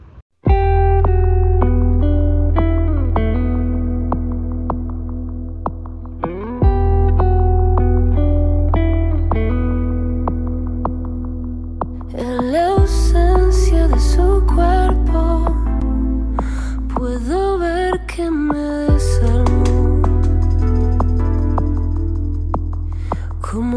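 A band's song plays loudly and steadily: layered, effects-drenched guitars with reverb and chorus over a deep, sustained bass, shifting chords every few seconds, with no singing yet.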